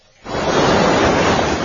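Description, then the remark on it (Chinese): Ocean waves on a sandy beach right beside the Sanlian Seaside Public Library in China: after a brief quiet moment, a loud, steady wash of surf rushes in and holds as a broad, hissing roar, with no voices. “海浪声近在咫尺，没有车道和捷径，光着脚踏着沙，一步一脚印儿，走上几百米才能抵达。”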